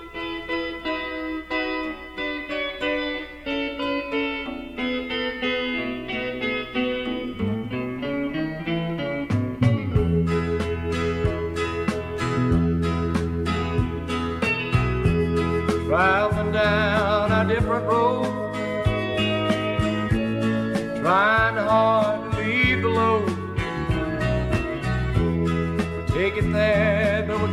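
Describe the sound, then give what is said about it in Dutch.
A 1971 recording by an American singer-songwriter: a full, steady song with a band playing throughout; about halfway in, a sung vocal line enters with wavering held notes over the accompaniment, sustained at moderate volume. “Die schreef het in 1971 en nam het in datzelfde jaar op. En dat klonk zo.”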